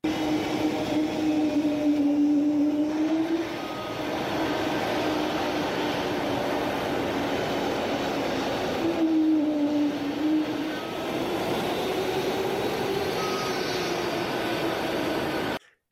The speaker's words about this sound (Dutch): Ik heb het geluid even opgenomen toen het toestel binnenkwam taxiën, op een paar meter afstand. luister maar.